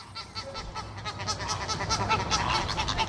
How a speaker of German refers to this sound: Flamingos haben also Showtalent und können prima tanzen. Ihr Singen klingt aber nicht so toll. Hört mal.